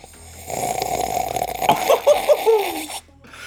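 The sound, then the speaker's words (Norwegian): A long, noisy slurp of the first sip of coffee from a cup, lasting a couple of seconds, airy and hissing with a few wet, gurgling bubbles near the end, then it stops abruptly. “Kan vi få en lyd av den første slurken din”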